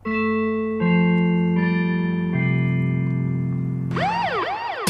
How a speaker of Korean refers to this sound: 자, 방송 중에 이, 이렇게 이제 벨소리가 울리면은 키워드를 공개해요.